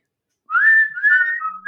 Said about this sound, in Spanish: Terminamos con el silbidito.